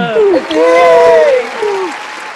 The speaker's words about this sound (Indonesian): Tepuk tangan penonton.